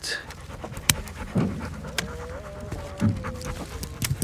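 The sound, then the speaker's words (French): A young all-black dog named Petnat, running among the rows, pants rapidly and steadily, with a soft whine rising at one point and a few faint knocks and rustles in the background. “Sans oublier ce jeune chien tout noir, adorable, qui cavale dans les rangs et qui s'appelle, ça va sans dire, Petnat.”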